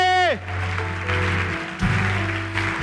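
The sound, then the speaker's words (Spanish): An audience claps steadily for God at a preacher's call, in a dense, continuous wash of applause, with sustained keyboard or organ tones underneath after a short descending note at the start. “Dele un aplauso a Dios el que lo crea.”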